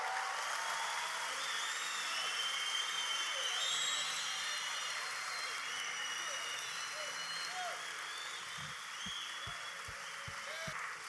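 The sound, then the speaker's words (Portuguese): An audience applauding God: a dense, steady wash of many hands clapping that holds at an even loudness throughout, with a few low, regular thumps near the end. “Continue aplaudindo.”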